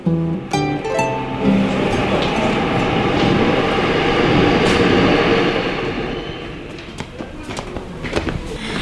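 A subway train rolls along with a loud, steady rumble and rattle, easing off slightly toward the end, with a few sharp clicks and clacks scattered throughout.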